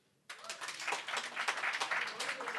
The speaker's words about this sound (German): Äh, können wir bitte alle klatschen, die den Podcast hören?